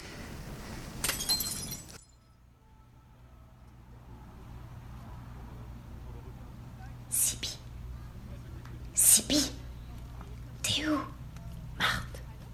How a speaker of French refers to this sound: Le bris de la lanterne, oui. c'est ça. Un éclat de verre qu'on entend tout au début.